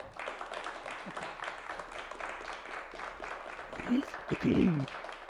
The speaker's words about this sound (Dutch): Mag ik een groot applaus voor ….